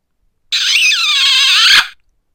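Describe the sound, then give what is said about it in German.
A drawn-out, squeaky kissing sound effect played from the first button, top left, of a mini soundboard. A loud, high-pitched, wavering smooch lasts over a second and ends in a sharp smacking pop, heard on its own with no talking. “Tja, da wird geknutscht.”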